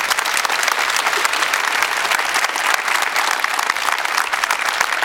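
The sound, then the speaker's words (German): Sustained audience applause: many hands clapping densely and steadily for about five seconds at an even, loud level, with no voices standing out. “Wie, ja, gerne Applaus.”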